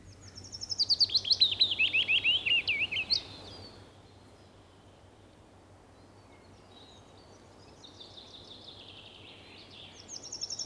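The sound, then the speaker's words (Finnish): A willow warbler sings a clear, sweet phrase that trickles downward, then after a pause a second, softer phrase follows, with another just beginning at the end. No voices, only a faint low hum beneath. “Mutta halu, haluatko kertoa tai avata tätä jo tässä vaiheessa vähän, että mitä, mitä tästä, miten, miten sä kuulet tämän pajulinnun?”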